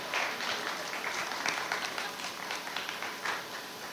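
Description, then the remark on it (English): A comedy show crowd in the Bronx applauds steadily for latecomers, dense clapping with some cheering mixed in, sustained for a few seconds at a fairly even level. “Make some noise for the late Tinos, the ones that are not here yet, the late ones.”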